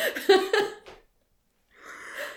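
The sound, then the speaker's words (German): A drawn-out yawn: a voiced, groaning stretch that trails off, a brief pause, then a soft breathy exhale. No talking. “Und jetzt habe ich den Faden verloren und du musst gähnen.”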